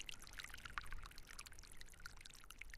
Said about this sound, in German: Das Gegurgel und die vielen kleinen Rinnsale rechts und links vom Weg. Der Pastoruri-Gletscher schmilzt. Stetig. Hier hört und sieht man es.